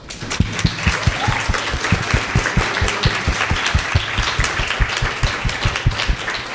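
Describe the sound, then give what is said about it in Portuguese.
An audience gives a round of applause for Milton Santos, clapping steadily for several seconds, a dense wash of clapping with some sharper, evenly spaced claps standing out; fairly loud throughout, with no talking over it. “E eu pediria para vocês uma salva de palmas para ele.”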